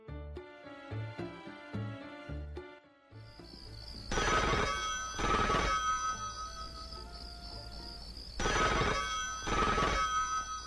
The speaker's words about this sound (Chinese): 有一天晚上，听见电话铃响了，许久没人来接。